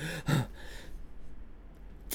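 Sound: imitated heavy panting breaths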